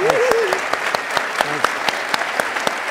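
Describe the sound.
Steady audience applause, another round for a speaker after a talk, a dense patter of many hands clapping at a loud, even level throughout, with a brief voice speaking faintly underneath near the start and middle.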